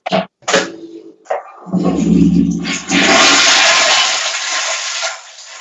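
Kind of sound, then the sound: household object, toilet flushing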